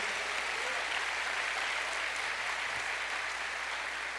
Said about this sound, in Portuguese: Você pode aplaudir esse Deus maravilhoso?